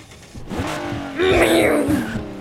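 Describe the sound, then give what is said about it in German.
A car engine revs up as the vehicle pulls away, its pitch climbing and growing louder midway through, with a steady rumble and no talking. “Ja, dann würde ich mal sagen, fahren wir erstmal los.”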